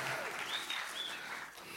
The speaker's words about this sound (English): Can we give them a round of applause again? Oh, you can do better than that. Give them a round of applause.